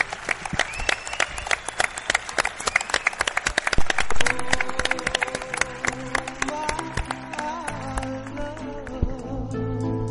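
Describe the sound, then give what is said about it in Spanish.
A crowd at a radio show in Málaga bursts into dense, steady applause for themselves and the radio staff, with many sharp overlapping claps; partway through, sustained musical tones of a closing music piece begin and the clapping thins out beneath the music. “Yo os pido un aplauso para vosotros y para la gente de la radio nos despedimos con un tema de música que tiene que ver con esto.”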